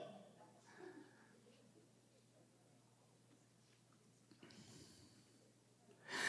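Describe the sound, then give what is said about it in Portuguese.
Congested heavy breathing from a person with a cold, with a few snorting, noisy breaths, fairly quiet at first and building to a louder, rough exhale near the end. “Estou respirando.”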